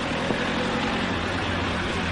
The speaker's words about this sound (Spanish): Ya de noche, una furgoneta blanca avanza por un camino. En ella se encuentran unos hombres afganos. Llega hasta un puesto de control que han establecido los soldados.